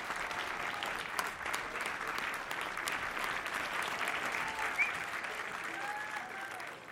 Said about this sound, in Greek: Άφησε ένα μεγάλο χαρτονόμισμα στο δίσκο της σερβιτόρας και βγήκε από την αίθουσα την ώρα που η μπάντα ολοκλήρωνε το πρόγραμμά της κάτω από το παρατεταμένο χειροκρότημα του κοινού.